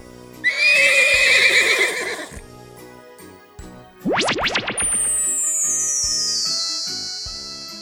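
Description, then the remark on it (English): A horse gives one loud, wavering whinny, then a rapid series of rising musical sweeps and a long, high shimmering tone that slowly glides downward. No one speaks. “And two mice change into two white horses.”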